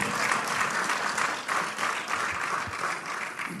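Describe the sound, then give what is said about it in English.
Sustained applause from a crowd, a dense wash of many hands clapping at a steady level throughout, with no talking over it. “So we have, yes, you can applaud, absolutely.”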